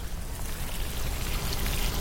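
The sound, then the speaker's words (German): A steady stream of water pours from a watering can in a garden, splashing continuously for a couple of seconds, moderately loud, with a broad hissing, trickling texture and no voices. “Sofort hat sie eine Gießkanne in der Hand”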